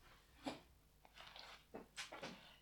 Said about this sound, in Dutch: Dus mijn hond die opstaat.